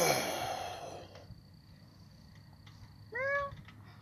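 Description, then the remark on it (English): A cat lets out a single short, clear meow near the end, rising then falling in pitch, after a breathy rush of noise at the start and a quiet stretch. “It was a cat.”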